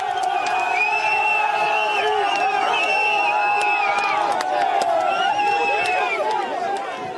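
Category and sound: crowd, crowd shouting and yelling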